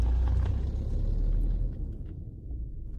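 A car engine rumbles with a deep, steady drone, then the low roar eases off and thins as the car drives out of Korsør station and turns left toward Tornborgvej, leaving a quieter hum. No one speaks.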